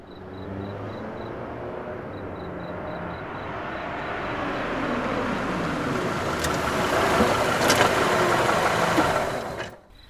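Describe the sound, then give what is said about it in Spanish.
A car engine idles steadily, a low continuous rumble with a broad hiss, then abruptly shuts off just before the end, leaving near silence. Richard switches off the car. “Richard apagó el auto.”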